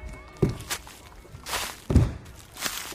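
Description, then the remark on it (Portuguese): Footsteps of people walking: a handful of soft, unhurried steps, dull heel thumps mixed with lighter scuffs at uneven intervals, with no one speaking; the people are walking along following a young man. “Não, eles estão só andando, eles estão seguindo o rapaz.”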